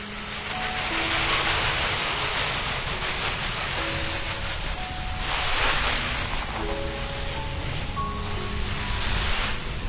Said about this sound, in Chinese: 这个声音有没有让你觉得很凉快？拿着水管洒水浇菜的人叫虞山范宽，是一位建筑师、绘画者。